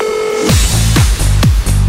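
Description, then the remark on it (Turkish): A telephone connecting tone for a phone line on the show Pusula: a steady electronic hum gives way to a loud series of four descending, warbling beeps at a quick, regular rhythm, clear with no voices. “Telefon bağlantılarımız var.”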